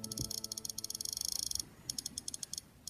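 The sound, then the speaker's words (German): Rapid, evenly spaced tiny clicks from the circular click wheel of an Apple iPod, ticking in a fast run, pausing briefly, then resuming in a sparser burst. Crisp and fairly quiet, with no one talking. “Der Apple iPod mit diesem kreisförmigen Clickwheel hieß das, glaube ich, das eben diese Geräusche macht”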